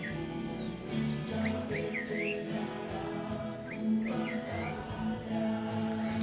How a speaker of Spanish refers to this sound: ¿Sí o no, pajarito? No le he puesto nombre.